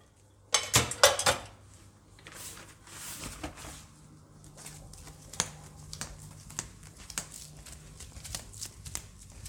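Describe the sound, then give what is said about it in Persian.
Dishes and cutlery clatter while being washed: a quick burst of loud, bright clinks at the start, then scattered lighter taps and scrapes over a low steady hum, with no talking. “شما یه دقیقه ظرفا رو ول بیا تا بهت بگم”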